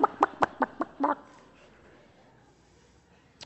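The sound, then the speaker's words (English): A quick run of about six sharp, evenly spaced chicken clucks, fairly loud, fading into quiet background noise, with one faint cluck at the very end. “I was called a chicken a lot. Now, that's an easy one when your last name is Bach. Bach.”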